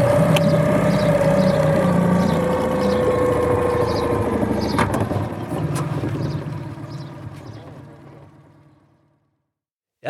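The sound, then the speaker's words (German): A boat motor chugs steadily on the water, its low droning rumble holding for several seconds before gradually fading away as the motor chugs off around a corner. “Ich war aber ehrlich gesagt auch ganz froh, als ich dann wieder auf meinem Board war und dieser Motor um die Ecke getuckert war.”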